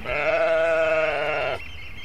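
A single loud sheep bleat with a wavering, quavering tone lasts about one and a half seconds, then cuts off, leaving quiet outdoor background; a short-fleeced sheep on an inaccessible beach in the Cromarty Firth, northeast Scotland, jumping from cliff to cliff.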